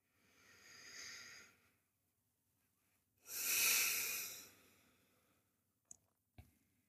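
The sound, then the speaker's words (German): Two slow, deliberate breaths drawn into the belly during a guided breathing exercise: a soft airy inhale, a pause, then a louder, rushing exhale, followed by a couple of faint clicks. “Auch hier lade ich dich ein, fünf ganz bewusste Atemzüge zu machen.”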